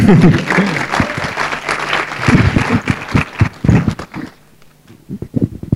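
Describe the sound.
Audience applause, a dense patter of many hands clapping loudly for about four seconds, then thinning into a few scattered claps. Voices can be heard mixed in with it.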